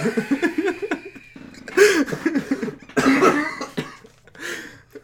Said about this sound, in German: oh, das war ein sehr ungesundes Husten.